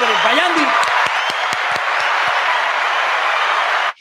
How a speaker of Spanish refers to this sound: Un aplauso para este muchacho